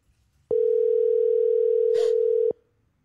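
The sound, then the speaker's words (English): A single steady ringback tone from an outgoing phone call, loud and clear, holding for about two seconds before cutting off. A brief soft noise briefly overlaps near the end. “Answer the phone”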